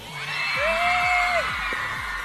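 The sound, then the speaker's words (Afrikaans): A crowd of schoolchildren at Laerskool Monument Park, a primary school, screams and cheers together, with one long, high whoop rising above the din while a steady low thumping beat pulses underneath. “hierdie klonkers wat so lekker gil.”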